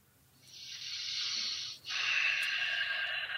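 A long, audible deep breath close to the mic: an airy inhale lasting over a second, a brief pause, then an equally long, steady exhale, with no talking.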